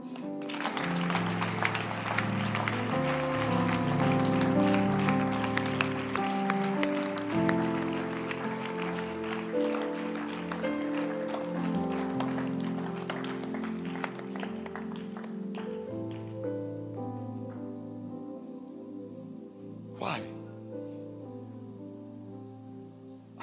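A church audience claps steadily during a sermon over sustained low musical tones, the dense applause loudest at first and gradually thinning out toward the end, with one sharp crack near the close.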